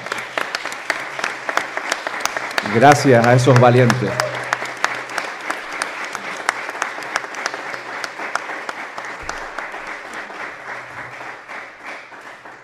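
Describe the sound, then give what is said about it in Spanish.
Sustained audience applause at a university faculty, given as a tribute, a dense crackle of many hands clapping steadily for over ten seconds. A voice briefly speaks over it near the start, and the clapping tapers off slightly toward the end. “Así que yo creo que ese homenaje podíamos dárselo en forma de aplauso desde esta facultad.”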